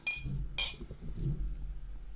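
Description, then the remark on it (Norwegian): Two bright clinks of glasses of High Coast whisky from Sweden ring out, a quick touch of glasses in a toast, followed by faint low murmuring and room noise. “Så skål. Skål, gutta.”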